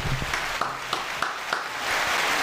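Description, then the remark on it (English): A handful of people clap in a steady, evenly spaced rhythm at a barbershop, fairly soft, over a constant hiss of background noise, with no one talking. “Let's give him a round of applause.”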